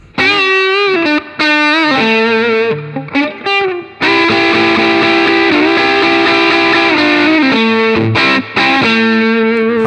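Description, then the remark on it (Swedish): A heavily distorted electric guitar, played through an amp with the treble turned to its brightest setting, gives a bright, treble-heavy tone in choppy riffs, then a long sustained chord with rich, buzzing overtones, before a few more short bursts. No one speaks. “nu kommer jag gå upp till det mest diskantiga läget då.”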